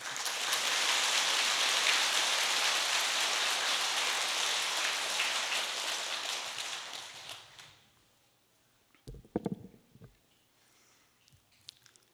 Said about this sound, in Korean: 박수.